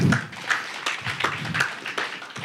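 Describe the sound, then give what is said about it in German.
A church audience applauds as the preacher begins a sermon, a steady patter of many hands clapping, with a few sharper claps standing out over the continuous wash, moderately loud and without any voices. “Danke, klatscht hinterher.”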